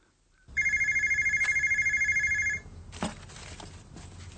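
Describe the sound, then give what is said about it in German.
A telephone rings once in a tiny office at a freight forwarding company, a bright, rapidly warbling electronic trill lasting about two seconds, fairly loud, followed by a short clunk like the handset being picked up. “The phone rings in her tiny office.”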